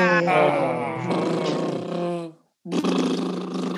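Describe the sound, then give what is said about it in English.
A person blows air out through closed lips, making a loud, voiced, buzzing lip trill. It runs for about two seconds, stops briefly, then starts again. “Putting my lips together, then blowing them out.”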